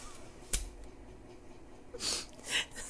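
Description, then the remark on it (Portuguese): A brief sharp click is followed about a second and a half later by two quick, breathy, hissing bursts, like a stifled sneeze. The sounds are soft, with no talking. “Saúde.”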